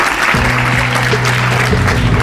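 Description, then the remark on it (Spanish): Steady, dense applause from an audience at the end of Madrid's presentation as the home for an agency's 400 workers, a continuous crackle of many hands clapping at even loudness, with a low sustained tone humming underneath. “Aplausos que parecen buen augurio.”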